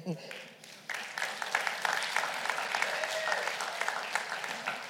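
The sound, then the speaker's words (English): An audience breaks into steady applause after a brief moment, a dense, sustained patter of many hands clapping that holds at an even level, with faint voices mixed underneath. “So clap for her, not me.”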